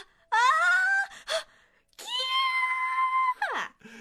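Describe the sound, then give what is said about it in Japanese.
A voice imitates the frightened, trembling scream of a high-school girl in a cinema audience during the dinosaur scenes of a film: two long, high, quavering wails, each trailing off with a short shaky gasp, loud with no other sounds around them. “異常に怖がり、震える声で悲鳴を上げ出しました。”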